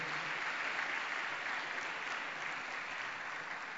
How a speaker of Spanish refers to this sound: Dele un aplauso a Cristo, por favor, en esta noche.